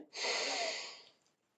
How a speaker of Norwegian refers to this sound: Jeg lukker øynene mine, så puster jeg godt inn.